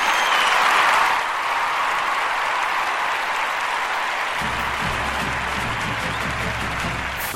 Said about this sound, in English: All right, as we move on around the conference here, you hear the the cadence music in the background.